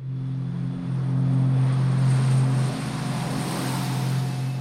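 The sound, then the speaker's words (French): A steady, loud engine drone with strong low harmonic tones swells and shifts pitch as an airplane takes off, on 4 April. No voices are heard. “Le 4 avril, enfin, son avion décolle.”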